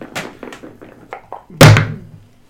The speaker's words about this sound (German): Du würfelst jetzt erstmal einen Constitution Save mit.